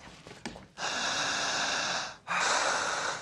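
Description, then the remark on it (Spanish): Long, deep breathing during a guided relaxation exercise: a slow, loud inhale lasting over a second, a brief pause, then another long breath, airy and steady, with no one talking. “Larga, honda, profunda, constante.”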